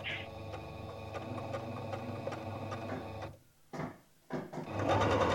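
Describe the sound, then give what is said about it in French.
A sewing machine runs steadily, stitching fabric for solidarity face masks, with a fast, even mechanical whir and regular ticks, pausing briefly for a couple of short bursts before starting up again louder. “qui met euh, ses ciseaux pour couper les tissus, euh, voilà, et qui, et qui coud avec sa machine.”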